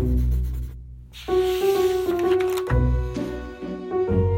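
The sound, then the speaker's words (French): A pencil scratches and scribbles across paper in quick, uneven strokes as someone writes about trees and draws them, fairly clear, while soft sustained music notes play underneath. “à l'intérieur, elle écrivait tout ce qu'elle savait sur les arbres. Elle les dessinait sous chaque saison.”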